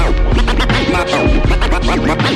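Rapid turntable scratches cut back and forth over a loud, dense music track, the swooping pitch sweeps repeating in quick rhythmic bursts throughout.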